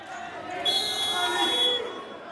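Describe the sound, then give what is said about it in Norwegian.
A basketball game against Centrum Tigers in Vulkanhallen, Oslo, Norway, with only about 50 spectators in the nearly empty arena: scattered voices murmur, a ball bounces, and a bright, steady high tone rings through the middle for about a second before fading. “Den første avgjørende kampen i sesongen den er mot Centrum Tigers i Vulkanhallen i Oslo.”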